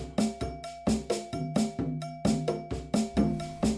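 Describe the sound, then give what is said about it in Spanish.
Traditional Cuban music, the music of the Black slaves who came from Africa, plays with a steady, driving rhythm, sharp percussive hits in quick succession, and bright cowbell strikes over low bass and tuned tones, with no talking. “hablar de toda la historia de esta música que empezó con la música que ustedes escuchan ahora, la música de los negros esclavos que llegaron de África.”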